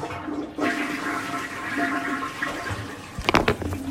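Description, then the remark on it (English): A toilet flushes with a loud, sustained rush of swirling water, ending in a few sharp gurgles and sucking gulps as the bowl drains. No one speaks. “Let me flush this.”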